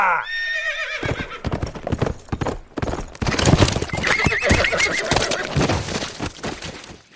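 A general's horse gives a high, wavering neigh at the start, then hooves clatter in a fast, steady galloping rhythm as he rides down to the river chasing a fleeing enemy ship, staying loud for several seconds before easing off.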